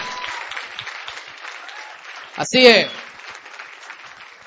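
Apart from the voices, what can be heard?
loud audience applause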